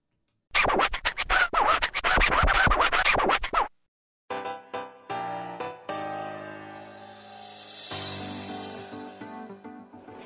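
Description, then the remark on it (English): A short instrumental music break on the Bobby Blackwolf Show: a few seconds of dense, choppy scratch-like rhythm, a brief gap, then a melodic passage with sustained tones swelling near the end. No one speaks. “So uh, we are going to take a very quick music break and uh, then uh, come back and talk to OLR for the first time in 2023.”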